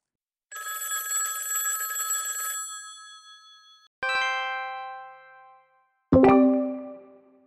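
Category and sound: sound effect, telephone bell ringing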